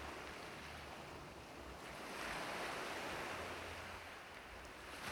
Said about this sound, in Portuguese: Assim como as ondas do mar nos colocam num estado de paz e tranquilidade.